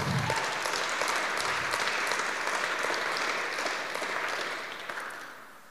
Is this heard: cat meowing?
no